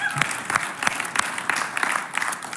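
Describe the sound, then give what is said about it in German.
An audience bursts into steady applause for God, a dense wash of many hands clapping at an even level with a few sharper claps standing out, and no one speaking over it. “Und ja, Amen, wir geben Gott mal einen Applaus für das.”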